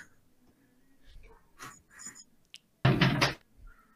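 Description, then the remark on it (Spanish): A door knocks or shuts with one loud, heavy thud near the end, after a few softer scattered bumps and rustles in otherwise quiet surroundings. “A la madre, creo que fue su puerta.”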